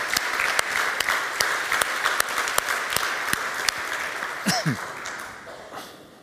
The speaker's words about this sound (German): Applaus